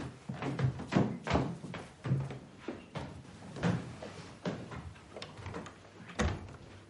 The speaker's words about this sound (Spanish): Sofía abre la puerta.